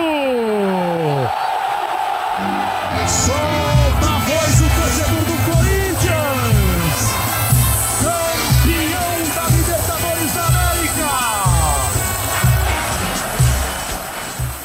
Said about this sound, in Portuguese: E aí, quando saiu o segundo gol do Sheik, com uns 10 minutos de antecedência para o fim do jogo, a torcida já começou a finalmente, né, careca, tirar o grito do peito. Chegou a hora de soltar o grito!